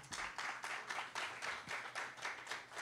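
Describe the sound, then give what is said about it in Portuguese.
A church audience breaks into applause for the Lord after a prayer, many hands clapping together in a steady, rhythmic beat of about four claps per second, bright and sustained, with no voices over it. “Você pode dar uma linda salva de palmas ao Senhor.”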